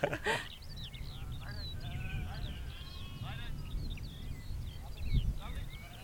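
A flock of small, compact Hebridean ewes bleats repeatedly as they are gathered and come up towards the speakers, several overlapping wavering calls spread across the few seconds, over a steady low outdoor rumble like wind.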